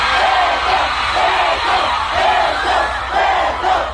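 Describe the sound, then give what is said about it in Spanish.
A large concert crowd chants "beso" (kiss) in loud, rhythmic unison, the repeated shouted word pulsing steadily over a dense roar of many voices. “la gente está gritando beso, beso, beso.”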